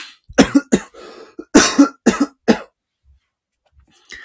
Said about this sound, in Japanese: ちょっとたまにね、あの、ゲホンゲホンっていうね、咳込む音が入るかもしれないんですけど、あまり気にしないでくださいね。はい。まだまだちょっとね、咳が止まらない状態でございますが、ね、気にせずやっていこうと思ってます。